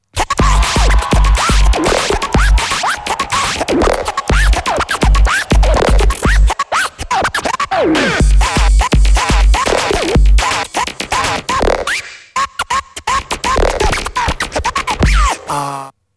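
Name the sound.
DJ turntable scratching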